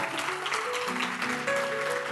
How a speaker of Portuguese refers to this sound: Vamos dar uma salva de palmas a essa palavra linda, mas com muita intensidade, com muita alegria.